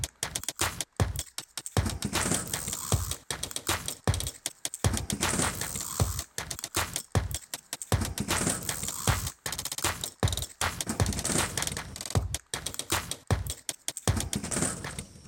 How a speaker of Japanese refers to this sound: 伊勢市愛さんのテープカッターの音がちょっと結構続けて入ります